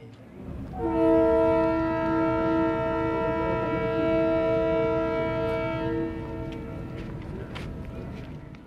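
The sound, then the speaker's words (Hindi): A train horn blasts loudly in one long sustained note for about five seconds over the steady rumble of a moving train, which keeps rolling after the horn stops; a train journey from Quetta to Calcutta. “आइए रेलगाड़ी में बैठें और कोयटे से कलकत्ते तक चलें”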